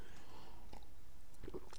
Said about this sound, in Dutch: Even een slokje water, sorry.